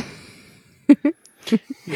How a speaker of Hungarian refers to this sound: Most arra gondolsz, hogy elnyomtam egy ásítást? Hát való, igen, nem szerettem volna így bemondani, de valóban erről van szó.